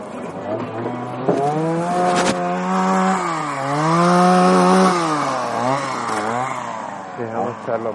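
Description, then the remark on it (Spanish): A chainsaw runs loud, its engine whining steadily and rising and falling in pitch as it revs up and eases off throughout. “Y musiquita también, para incluso o sea, la música de motosierra, la que usamos.”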